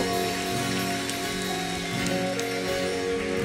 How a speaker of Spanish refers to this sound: Dele un aplauso fuerte, fuerte, fuerte a este Dios maravilloso.